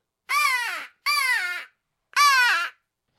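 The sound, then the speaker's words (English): Three loud, raspy crow caws blown on a handheld crow locator call as a demonstration, blown away from the mic, each about half a second with a slight downward slide, spaced by short pauses with no talking. “I'm sitting here looking at my uh, my crow call, if if nothing's talking, you can hit a hit a crow.”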